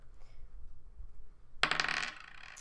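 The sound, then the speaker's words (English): After a quiet moment, three dice clatter and tumble across a hard tabletop in a quick rattling burst of small hard clicks that settles within about a second. “So I get to roll three dice.”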